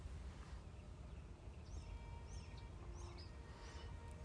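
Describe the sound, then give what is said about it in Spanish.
Small birds chirp faintly outdoors at dawn while it is still dark, a handful of short scattered tweets over a steady low outdoor rumble, with no one talking. “¿Escuchas? Hay unos pajaritos.”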